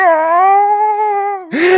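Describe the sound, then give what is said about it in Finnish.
A person imitates a howling dog with one long, steady, mournful tone that ends in a brief rough, breathy rise. Fairly loud, with no talking. “Joo, se koiraa siinä, ja sitten se koira vaan Uli”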